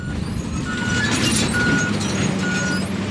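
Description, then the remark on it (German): A large red tractor in a firebreak, pulling a giant scarifier-like implement over the ground to shred bushes and scrub, rumbles steadily at low pitch while a high reversing alarm beeps in three evenly spaced long tones over the engine noise. “schweres Gerät, wie ein großer roter Traktor, der so etwas wie einen gigantischen Vertikutierer über den Boden zieht, Büsche und Gestrüpp zerkleinert.”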